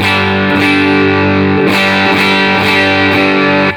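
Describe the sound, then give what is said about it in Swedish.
Distorted electric guitar played through a Dream overdrive pedal with gain turned up, sustained thick chords ringing continuously, re-struck in a steady rhythm with bright bursts about every half second to second, loud and alone without talking. “Eh, men jag tänker då om vi kör Dreamen här, ska vi ta lite gain på den?”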